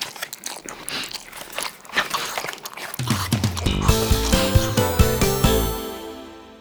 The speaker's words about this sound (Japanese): 山岡さんずるい自分ばっかりおいしいもの食べてえ私もいただきます